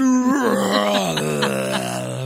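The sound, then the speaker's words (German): A voice imitates a Godzilla roar: one loud, drawn-out, strained vocal cry with a rough, wavering texture that slowly sinks in pitch over about two seconds. “möchtest jetzt sicherlich noch hören, wie ich einen Godzilla nachmache, richtig?”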